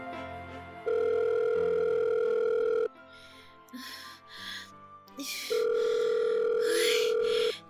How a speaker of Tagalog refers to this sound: Ay, sige na po. Sagutin niyo na ang phone.